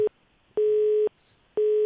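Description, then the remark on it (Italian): A telephone busy tone after a dropped call: a steady mid-pitched beep switching on and off in even half-second pulses, loud and alone with no voices. “E è caduta la linea.”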